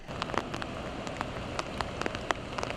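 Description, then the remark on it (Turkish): Steady rain patters onto a hard surface in northeastern Turkey, around Artvin and Rize, a dense hiss broken by frequent sharp, irregular drip taps, with no voices. “Yurdun kuzeydoğusu haftaya yağmurla başladı, yağmurla sürdürecek.”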